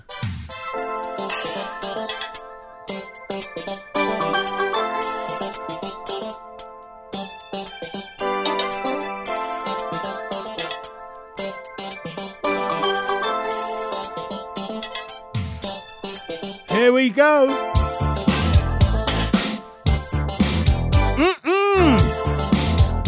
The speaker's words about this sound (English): Love this tune. Come on. Makes me want to dance. In fact, here I am in the chair dancing.